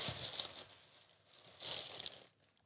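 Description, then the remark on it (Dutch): Crinkly rustling of a bag being handled and opened, in two bursts of crackling plastic or paper with a quieter stretch between, no talking. “Je hoort het al ritselen natuurlijk.”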